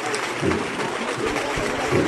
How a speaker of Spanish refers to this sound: Al más puro estilo de Triana, como solo saben hacerlo en esta parte de la ciudad, en este barrio y en este momento se arría el paso y el público aplaude